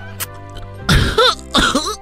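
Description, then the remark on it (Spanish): Three harsh, raspy coughs in quick succession from someone in a Barney costume after smoking marijuana, loud, following a brief quiet stretch with a faint low hum in the background. “o sea, es Barney tosiendo, güey, pero marihuana así.”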